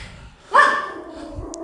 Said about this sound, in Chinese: 哎呦，叫什么啦？气死人了！哎，过来过来过来，这我我家的狗哈，只要有人哈去坐电梯哈。我家里有电梯的哈，那那那个什么哈，他就会很生气啊。